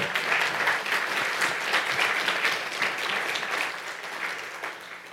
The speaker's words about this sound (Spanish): Dele fuerte ese aplauso al Señor.